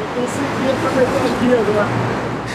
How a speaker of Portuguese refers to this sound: o trânsito foi aumentando e tinha ficado simplesmente impossível atravessar. Estamos presos aqui.